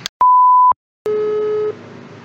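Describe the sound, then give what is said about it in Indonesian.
A telephone call's electronic beeping: a steady half-second high beep, a brief pause, then a lower, buzzier tone with a faint hiss trailing after, clear with no voices. “Hai Hai Eh ini eh apa namanya gue lagi nelfon siapa ya guys guys”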